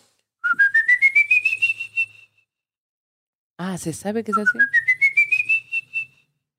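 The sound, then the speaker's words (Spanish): A person whistles a rising, wavering tune twice, each phrase climbing steadily in pitch over about two seconds; between them someone speaks briefly. The whistling is clear, imitating the eerie whistle of a legendary ghost. “Tienes que huir porque si se te, o sea, si, si lo escuchas silbando lejos, es que ya, ya te Ya ya te agarró no. Tengo miedo, güey. el silbido es como”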